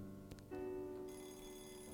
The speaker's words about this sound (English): From inside the apartment, the shrill sound of Craig's vintage alarm clock could be faintly heard, like a distant fire alarm.